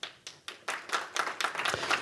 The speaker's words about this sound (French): On peut l'applaudir.